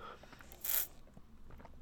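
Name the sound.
sipping a soft drink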